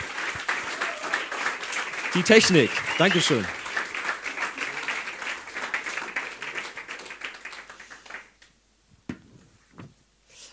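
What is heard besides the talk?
audience applause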